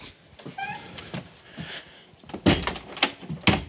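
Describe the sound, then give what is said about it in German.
A door is handled and closed: a brief high squeak early on, some shuffling, then a few sharp wooden knocks and thumps as it shuts. No one speaks. “Türe zu.”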